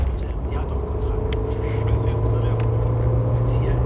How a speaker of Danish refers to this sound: Jeg sidder der sammen med min mor, og det er hende, der kører. Vi kører af landevejen. Og jeg ved, at vi er på vej til Sverige.